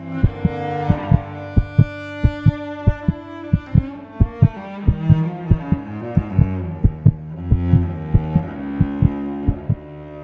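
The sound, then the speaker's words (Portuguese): A rapid human heartbeat thumps in an insistent rhythm, beating faster and faster, each beat sharp, layered over sustained droning musical tones with no voices. “Será que você consegue ouvir? meu coração batendo cada vez mais rápido conforme essa desorquestra do desespero e da solidão.”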